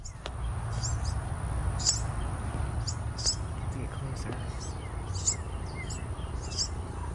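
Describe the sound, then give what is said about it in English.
A cluster of about five baby starlings chirps together at night in thin, high-pitched bursts, repeating irregularly throughout, set against a steady low rumble of outdoor background noise. “Those are not just birds; those are baby Yeah, birds. sounds like babies.”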